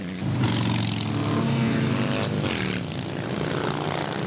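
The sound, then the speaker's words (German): A loud, continuous engine rumble of motorcycles in a parade rolling past onlookers, with layered droning tones that swell and shift slightly as the machines pass. “Den tieferen Sinn der machtvollen Motorradparade erfassen die meisten Schaulustigen nicht sofort, trotz der vielen Flaggen mit Aufschriften wie Prisoners of War, Kriegsgefangene oder Missing in Action im Kriegseinsatz vermisst.”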